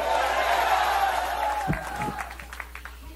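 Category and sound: crowd, audience shouting praise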